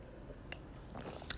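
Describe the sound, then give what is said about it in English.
Someone takes a quiet sip of soda pop: soft wet mouth and lip sounds, then a single sharp little click near the end, with no talking. “So I'm about to take a sip of my pop here”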